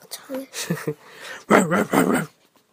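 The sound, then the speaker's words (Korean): A human voice imitates hunting dogs barking fiercely at a wolf: a few short yaps, then two longer, louder growling barks. “사냥개들은 새끼 양이 있는 곳까지 찾아왔어요. 그리고 늑대를 향해 사납게 짖었어요.”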